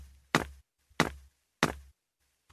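Old, broken worn shoes tap out a steady rhythm, four sharp, loud clacks spaced roughly evenly with a low hum between them and no talking.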